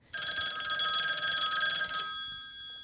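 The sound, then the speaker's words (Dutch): A telephone bell rings in a rapid, continuous metallic trill for about two seconds, then cuts off and leaves a fading shimmer. Loud, with no one talking. “Ja, de co-telefoon. Die gaat altijd als het niet uitkomt.”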